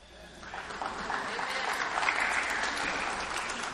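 A crowd breaks into sustained applause in answer to a sermon question about believing in the power of prayer, dense overlapping claps swelling to a steady, fairly loud patter that holds without a break for several seconds.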